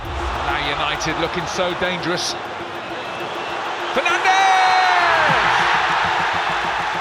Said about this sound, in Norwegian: Det er ekstatisk stemning på fotballbanen Old Trafford, og Manchester United er i ferd med å vinne på hjemmebane.